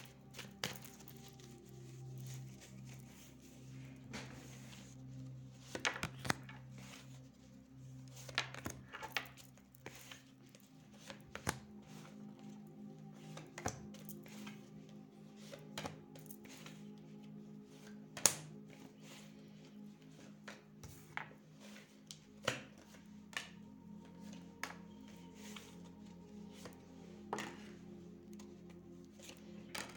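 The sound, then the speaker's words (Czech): Tarot cards being shuffled during a tarot reading for the year 2022: a steady run of soft, irregular taps, riffles and flicks over a low background hum, with no one speaking. “A už se dívám na vaši fotku, míchám u toho karty a podíváme se teda spolu, jak se bude barvit ten rok 2022.”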